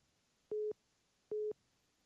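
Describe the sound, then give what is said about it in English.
Two short, identical telephone line beeps, evenly spaced about a second apart, signal an incoming call to the Livewire radio call-in show, sounding clearly and alone over a faint background hiss. “Hold on, we got we're getting a phone call”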